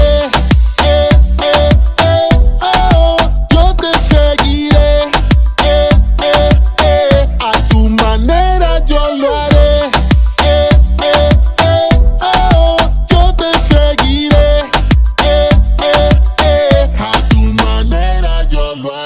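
A full, loud song plays continuously, with steady percussive beats, sustained melodic lines and rich harmonic layers, and no talking over it until it cuts off at the end.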